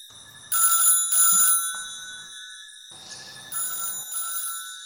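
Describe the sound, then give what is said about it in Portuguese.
A telephone rings in short repeated bursts, a bright electronic trill that starts and stops in a steady pattern, sounding somewhat muffled, in the neighbouring apartment. “Barulhinho de telefone no, no apartamento do lado ali.”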